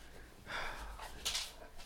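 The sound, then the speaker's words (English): A dog pants and snorts close to the microphone in two short, breathy bursts, the second sharper than the first, with no one speaking. “I don't know what to do with this dog right now.”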